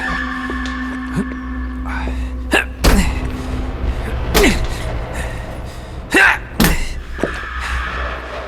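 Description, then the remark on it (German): Repeated heavy thuds and rattling bangs as someone who has just freed himself from bindings yanks at a locked door that won't budge, with a few sharp jolts standing out over a low steady hum. “Und jetzt die Tür.”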